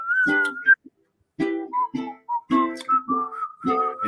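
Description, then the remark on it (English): A person whistles a cheerful melody, the clear pitch sliding between notes in short phrases with a brief pause early on, alongside low humming or vocal tones. “Just purse your lips and whistle, that's a thing.”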